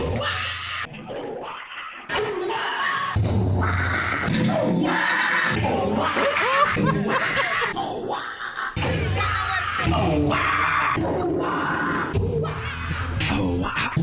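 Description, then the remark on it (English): A rapid compilation of different people singing karaoke to one song, squealing its high-pitched dolphin-like noises into microphones, each short burst cut straight into the next, loud over lively bar crowd noise. “This is a compilation made from YouTube videos of people karaokeing this song, but only the dolphin noise part.”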